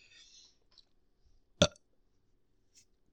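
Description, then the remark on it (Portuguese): A single short, loud burp made with the microphone right at the mouth, sharp and abrupt, with faint soft rustles before and a brief high hiss afterward in otherwise quiet surroundings. “Eu vou rotar, eu dou uma, só uma chegada com o microfone dentro da minha boca pra o pessoal escutar o, o som do meu arroto.”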